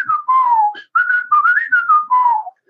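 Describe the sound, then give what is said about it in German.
A person whistles a short melody imitating the whistling on a record, with a series of clear, sustained tones that rise and fall in pitch across a few brief phrases, with no talking. “Auch dieses Pfeifen, dieses.”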